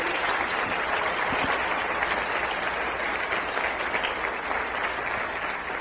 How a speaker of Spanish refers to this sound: Que le podemos dar un aplauso, por favor, a doble diamante,